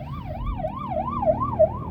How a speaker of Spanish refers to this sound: Uy, los bomberos. Perdonad. Un segundo que me aparte para dejar pasar.